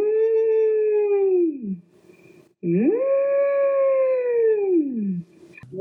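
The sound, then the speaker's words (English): A voice imitates whale song with two long, loud, moaning tones, each holding steady before sliding down in pitch, separated by a brief pause. “and it's, whale sounds.”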